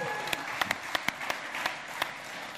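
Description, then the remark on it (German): An audience applauds the announcement that a refugee-aid helper will support the KFO audience: a steady, dense patter of many hands clapping at an even level, with several sharper individual claps standing out. No one speaks. “Das ist mal ein Applaus wert, würde ich sagen.”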